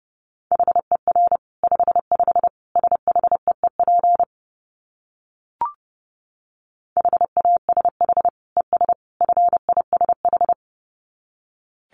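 Fast Morse code at about 30 words per minute in a single steady mid-pitched tone, rapid dots and dashes keyed in two bursts separated by a pause with a faint click, no voices.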